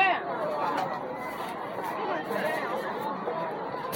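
Steady crowd chatter at a morning market, many overlapping voices blending into a continuous, moderately loud hubbub with no single speaker standing out.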